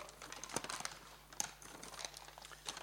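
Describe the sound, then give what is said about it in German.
A plastic bag crinkles and rustles as it is handled, with a steady run of soft crackles and a few sharper crunches, fairly quiet, with no talking. “Dann habe ich so meine Willenskrafttüte, da ist eine Sünde gekommen und ich sage, dich packe ich weg.”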